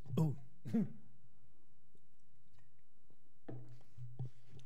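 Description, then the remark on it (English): Two sharp throat-clearing coughs in quick succession, followed after a pause by softer, muffled throat sounds with no speech. “wow, guys, some a little bit of something in my throat. Then thought I was going to uh, start coughing everywhere.”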